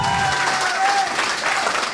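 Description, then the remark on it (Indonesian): Sustained applause from an audience at an evening football talk event, a dense, steady wash of clapping with a few faint whistle-like tones riding on top, loud and continuous throughout. “Ada Coach Jasin tadi tepuk tangan Coach Jasin, wih gila.”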